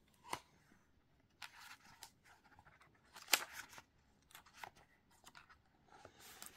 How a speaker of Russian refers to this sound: Увидели, в чем она уникальная и интересная? Две книги в одном. Листаем.